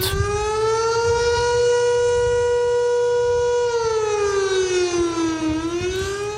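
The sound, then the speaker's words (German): A loud civil defense siren alarm, sounded to inform a municipality's population, wails steadily with a rich harmonic tone, holding its pitch before sliding down and rising again near the end, with a low rumble underneath and no talking. “Im Internet hat die Gemeinde Mitteilung aufgeschaltet, das Radio hat die Meldung verbreitet, die Feuerwehr hat Lautsprecherdurchsagen gemacht und sogar der Sirenenalarm hat losgekühlt.”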